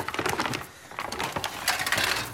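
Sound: rummaging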